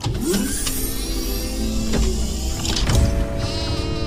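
A sheep, Dolly, the first successfully cloned sheep, seven months old, bleats a few times, wavering calls rising over a steady low rumble of background noise, moderately loud, with no one speaking.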